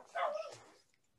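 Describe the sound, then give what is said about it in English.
A single dog bark, short and somewhat muffled, from a dog wandering around the house, fading quickly into quiet with no one talking. “Yeah, he's wandering around the house barking.”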